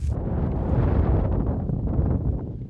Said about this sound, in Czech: Kvůli silnému větru dnes museli zastavit jednu ze svých lanovek ve ski areálu Klínovec.